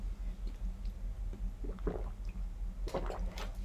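Someone takes sips of fizzy sparkling water, with soft wet gulps and swallows, a faint bubbly hiss and a few brief bursts of sloshing liquid against a low steady hum.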